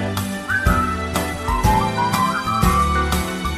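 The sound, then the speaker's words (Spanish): Someone whistles a bouncy tune in short melodic phrases over a steady, rhythmic musical accompaniment with regular strummed hits; the whistle sits clearly on top of the backing. “Pon la boquita sin para silbar.”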